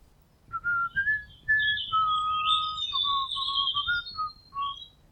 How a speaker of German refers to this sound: Sie strahlt, als sie ihren geliebten Spielplatz erreicht. Es ist wie eine Oase inmitten der Natur. Von großen Hecken umgeben, kann sich Robin hier richtig gut verstecken. An ihrem Ort der Ruhe. Hier hört Robin die Vögel singen.